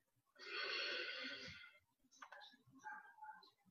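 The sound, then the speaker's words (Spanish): A slow, deep inhalation taken during a guided breathing exercise, a loud breathy rush of air lasting about a second, followed by quieter scattered sounds. “A tu tiempo, te preparas para hacer una respiración lenta y profunda. Inhalo profundo.”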